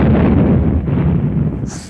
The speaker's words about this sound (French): Au fil de ses déambulations, Rumpert est pris dans une violente explosion.